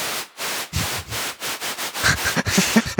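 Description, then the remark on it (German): Rhythmic bursts of synthesizer white noise, fed through a voltage-controlled amplifier (VCA) and shaped by an envelope with a long attack, swell and fade in a steady, chugging pattern, imitating the chuff of a steam locomotive. About eight or nine fairly loud pulses, with no talking. “wenn ich dann dieses weiße Rauschen wieder in den spannungsgesteuerten Verstärker, also Voltage-Controlled Amplifier, kurz VCA, stecke und unsere Hüllkurve von eben benutze”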